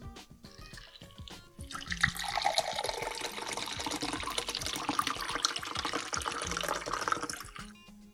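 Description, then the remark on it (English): A steady stream of a shaken cocktail is strained into a tumbler for several seconds, a bright splashing trickle with faint clinks before it starts and as it tapers off at the end. “going strain it into our tumbler.”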